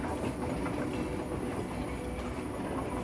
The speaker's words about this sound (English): The hum and resonance of the train are very soothing to you, making you even sleepier.